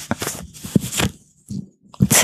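Crisp bursts of rustling and scraping from a jacket zipper, several irregular crunchy rubs with a short quiet gap in the middle, then a final sharp scratchy burst.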